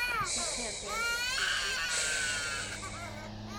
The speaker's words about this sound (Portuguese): Eu sei que você tem fome, né, mãe? Fica quietinha, mãe. Ei, toma conta das suas crianças. Faz ela parar de chorar.